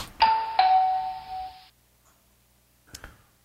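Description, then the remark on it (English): A two-note electronic doorbell chimes once, ding then dong, with bright ringing tones that fade after about a second, followed by quiet and a faint click. “I'm not getting the door.”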